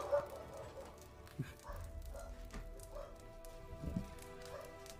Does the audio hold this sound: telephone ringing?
no